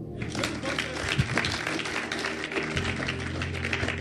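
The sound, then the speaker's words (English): An audience claps together in a steady, dense wash of handclaps lasting several seconds, with a low murmur of voices beneath the applause. “Clap oh.”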